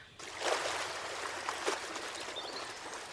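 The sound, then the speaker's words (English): Water splashes and churns as two people fall back into it, with a couple of sharper surges early on, then settles into a steady sloshing rush. “It was then that the little one, the pixie, looked at me and let go, sending her friend and I back into the water.”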